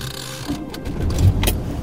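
A steady low rumble of a car driving at night on the way to dinner, with continuous road and engine noise and a few faint mechanical clicks and rattles over the top, no voices.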